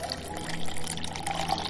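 Water pours steadily into a glass, served to visiting children, a continuous splashing trickle lasting under two seconds with a faint rising tone as it fills, with no voices.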